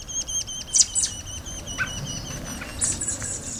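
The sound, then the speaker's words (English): Busy, high-pitched chirps and peeping calls from a robin and its fledglings as the robin delivers caterpillars to them, repeated in quick bursts over a soft outdoor background with no voices. “This robin is making a delivery of tasty caterpillars to its fledglings.”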